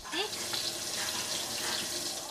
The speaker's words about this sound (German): Nachdem ich mein Geschirr abgewaschen habe, dafür ist hier jeder selbst verantwortlich,